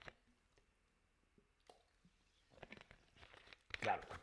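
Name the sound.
drinking water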